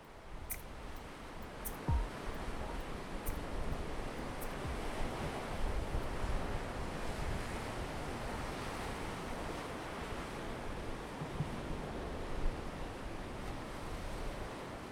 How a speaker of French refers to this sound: Pour enregistrer cet épisode, nous étions à quelques dizaines de mètres des vagues